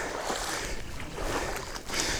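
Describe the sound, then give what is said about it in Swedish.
Steady splashing and sloshing of water as someone wades through knee-deep water among loose tussocks, with continuous churning swishes and no voices. “Nu är det, är det vatten upp till knäna.”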